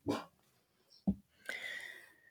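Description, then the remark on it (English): A dog gives two short, sharp barks about a second apart, followed by a longer, high-pitched whining yelp. No one speaks, and the dog is not loud. “the dog agrees.”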